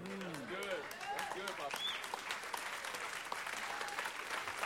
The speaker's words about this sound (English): Be honest, you can clap better.